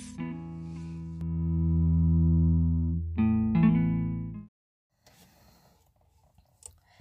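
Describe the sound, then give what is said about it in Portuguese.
A heavily effected, distorted instrumental intro to an original song: thick sustained chords ring loudly for about four seconds, shift once to a new chord, then stop abruptly, leaving near silence with faint scattered noises. “E eu vou mostrar aqui para vocês essa música de minha autoria e que vai correlacionar todos esses conceitos que eu citei aqui para vocês.”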